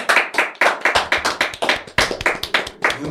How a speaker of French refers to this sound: En attendant, merci d'applaudir Julien et Guillaume du groupe …!